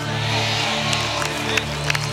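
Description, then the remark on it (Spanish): An audience claps and cheers in a steady, dense wash of applause for Jesus Christ, with sustained low musical tones humming underneath the whole time. “Un aplauso a Jesucristo.”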